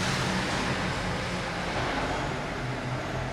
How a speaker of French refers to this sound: Là, il y a un camion qui arrive. Donc, ça, c'est un camion qui vient d'Ambonnet, donc des grands crus On a sur le secteur d'Ambonnet. donc là, il y a un chariot élévateur qui va le décharger